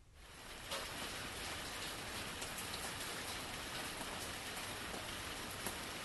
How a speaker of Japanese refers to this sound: その日もやっぱり雨が降っていた。